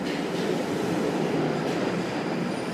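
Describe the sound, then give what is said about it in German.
A steady, loud rumble of a London Underground train running along the tracks, continuous throughout, with a dense low roar and faint rattling; no voices. “Wenn in London in diesen Jahren die U-Bahn plötzlich stehen bleibt, macht sich sofort ein mieses Gefühl breit.”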